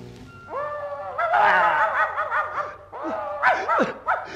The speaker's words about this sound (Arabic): كلب اسود اهو ده اهو ده الحارس الكبير